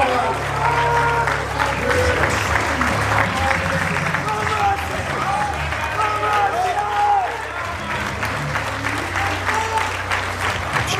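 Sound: audience applauding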